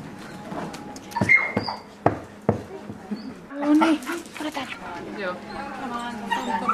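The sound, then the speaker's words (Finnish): A newly arrived four-year-old dog whimpers with thin, high whines and lets out several short, sharp yaps while people talk in the background. “Sieltä tuli jo tommonen vesseli.”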